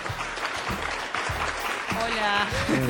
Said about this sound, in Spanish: Suenan los aplausos para ella.